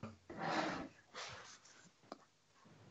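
A couple of muffled, breathy coughs from a person with a bad cough, the first longer and harsher, the second shorter, followed by a faint click and quiet breathing.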